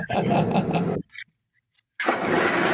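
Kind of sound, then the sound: vehicle, car engine starting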